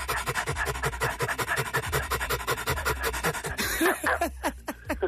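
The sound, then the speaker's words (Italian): A person pants rapidly and rhythmically like a dog as a breathing exercise, moving the belly to work the diaphragm, short breathy huffs in a steady fast stream, fairly loud, with no talking. “infatti quando eh, fai questo tipo di respirazione, come il cane col fiatone per, in sostanza, sì.”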